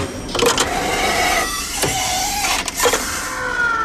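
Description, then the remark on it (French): A radio station's coffee machine whirs and hums steadily, its motor drone punctuated by a few sharp clicks and knocks, with no voices present. “c'est la machine à café de Radio Classique”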